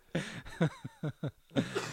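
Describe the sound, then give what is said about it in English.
A loud run of about five or six harsh coughs in quick, uneven succession, some with a raspy voiced edge, and no talking alongside. “Me for the cough.”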